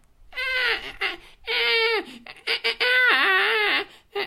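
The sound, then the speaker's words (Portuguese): A voice imitates the call of a Cory's shearwater, a bird found in the Azores: three loud, wailing cries that rise and waver in pitch, each about half a second long, sounding almost like a crying baby, with short breathy gaps between. “Pá, eu, não, eu nem estou a fazer bem, eu sinto não estou a fazer bem, mas isto é o som de um cagarro.”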